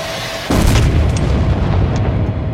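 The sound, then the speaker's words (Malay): A sudden, loud explosion from falling mortar shells and grenades bursts in, followed by heavy, sustained rumbling with a few fainter blasts scattered through it, overwhelming, with no voices. “Diburukkan pula dengan letupan motor yang jatuh bertabur-taburan.”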